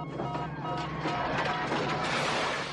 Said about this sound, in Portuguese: Porque o Roboman tá é destruindo esse carro incrivelmente lentamente, né, cara?